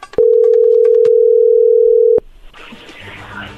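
A steady, loud telephone dial tone hums for about two seconds as a call is being placed, then cuts off abruptly into soft rustling background noise.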